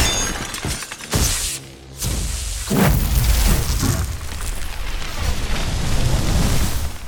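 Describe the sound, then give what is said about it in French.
A burning beholder falls violently and crashes into a power generator: a heavy crash with shattering and breaking debris, followed by a loud, sustained roaring rumble like a fiery impact, dense and noisy across the whole clip with no voices. “Enflammé, il chuta alors violemment et vint percuter un groupe électrogène.”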